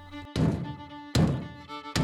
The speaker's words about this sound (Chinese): 小老虎突然听到有人敲门